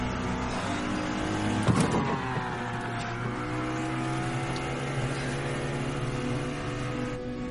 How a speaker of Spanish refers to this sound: Poco a poco se incorpora, pone en marcha la embarcación y se marcha del lugar.